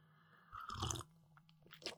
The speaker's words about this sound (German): Gut, dann würde ich sagen, nachdem ich äh, so einen Schluck äh, Pfefferminz mit Süßholz-Tee Schluck gemacht habe